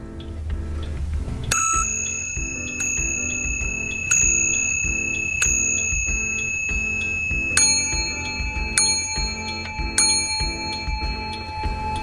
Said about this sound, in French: Vous tirez sur la cordelette et vous écoutez l'heure au quart d'heure près.